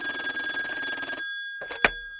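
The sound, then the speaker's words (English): An old-style telephone bell rings in a single loud burst of rapid metallic trilling for just over a second, then falls silent before a short clatter, like the receiver being picked up. “Take this call I got the other day.”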